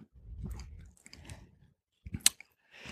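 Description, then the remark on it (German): Moist chewing with soft crunches and a few sharp clicks of teeth, in irregular bursts separated by brief pauses, with no talking, as a sound engineer chews food in a recording studio in Neukölln before speaking. “Erstmal runterschlucken.”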